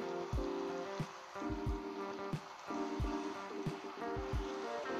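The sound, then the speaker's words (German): In a video game, a boat moves steadily through water, with a continuous wash of splashing and lapping, regular low thumps as it knocks over small waves, and a faint sustained tonal hum underneath. No one speaks. “Ich glaube, ich fahre jetzt einfach mit dem Boot einfach so in eine Richtung.”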